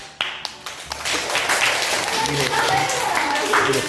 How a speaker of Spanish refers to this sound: ¡Hala! Un gran aplauso.